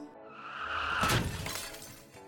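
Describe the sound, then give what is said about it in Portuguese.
A car crashes into a pole: a tonal rising whine builds, then one loud impact with shattering glass, followed by debris clattering and fading. No one speaks. “Tipo assim, uma, uma batida num poste, né?”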